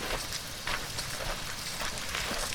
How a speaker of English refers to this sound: I'm delighted every day it rains.